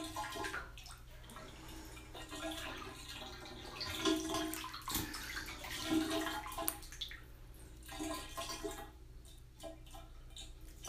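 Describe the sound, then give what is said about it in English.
Water runs steadily into a bathtub while a person is underwater, with a continuous rushing hiss and occasional splashes that swell and fade over about ten seconds; no one speaks. “I'll look at water beating on breasts or something.”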